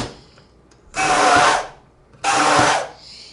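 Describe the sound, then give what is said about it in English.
A stick blender whirs in two short bursts, each about half a second long, with a high, buzzing motor whine and the churn of salad dressing being blended, separated by a brief pause. “If you have a stick blender, it seems to work really well and really fast.”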